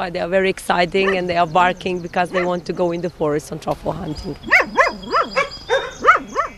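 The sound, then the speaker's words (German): Truffle-hunting dogs on a farm bark and yelp excitedly at arriving visitors in quick, repeated bursts, loud, with a voice talking over the first half before high, rising yelps carry on alone. “Wenn uh, sie zu uns auf den Hof kommen als Besucher, dann bellen die Hunde ordentlich, denn sie denken, sie sind Touristen, denen sie jetzt in den Wald zum Trüffel suchen ziehen.”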